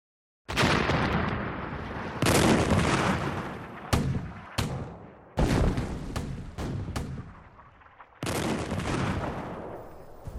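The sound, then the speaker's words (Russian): Heavy bursts of war gunfire and booming artillery roll in waves, with sharp cracks and long rumbling blasts overlapping densely. Loud, no voices, like a battle raging. “Мимо деревни абрикосовых цветов пронеслась война. Это была игра фейерверков далекой черной страны с запада и красной страны с севера.”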